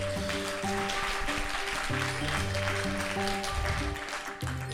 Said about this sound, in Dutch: Welkom. Applaus. Voilà.